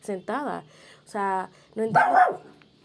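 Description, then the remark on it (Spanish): A woman's own dog barks loudly, a few sharp yelps in quick succession, then the woman starts talking right after the barking stops. “Ese fue mi perro y no voy a recortar eso para que así puedan entender qué, qué fue lo que pasó, porque si no, si lo corto van a pensar como que qué le pasó a ella, porque corto esa parte.”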